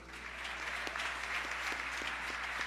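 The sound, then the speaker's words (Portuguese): An audience claps steadily in applause to the Lord, a dense wash of many hands with a few sharper, rhythmic claps standing out at a regular beat, sustained and fairly loud throughout. “Se você crê, recebe essa palavra, aplauda o Senhor.”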